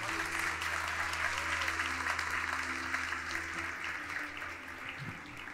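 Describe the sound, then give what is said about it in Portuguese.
A church audience applauds in praise to the Lord steadily for several seconds, a dense wash of many hands clapping with a faint hum underneath, tapering slightly toward the end. “Eu queria que vocês aplaudissem ao Senhor pela vida dessas irmãs aqui.”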